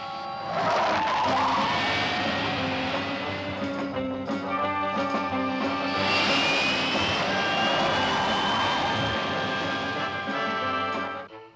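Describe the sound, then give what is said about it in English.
Turbine engines power up, a loud, steady roar layered with high whining tones that climb in pitch as they spin faster, sustained for about ten seconds before cutting off. No voices. “batteries to power, turbines to speed.”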